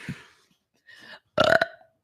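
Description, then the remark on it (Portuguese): A short series of burps, two faint, breathy ones followed by a louder, deeper croaking burp near the end, with no talking. “É, vamos realizar, eu vou realizar o fetiche de quem gosta de arroto.”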